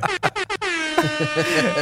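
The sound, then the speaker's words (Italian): A loud air horn blares in a few short choppy bursts, then holds a long sustained blast with a wavering, brassy tone, dominant throughout. “ok, oggi la trombetta va forte.”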